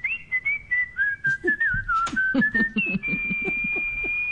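A sustained, fairly loud whistled tone holds for several seconds, dipping slightly in pitch and then rising to a steady high note, with soft rhythmic thumping sounds underneath.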